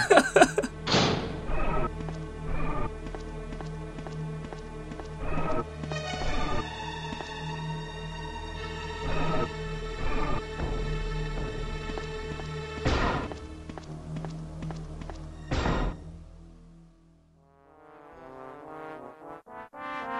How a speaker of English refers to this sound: I'm going to put in a clip of um, the sound, the, the music soundtrack for the kitchen in the original version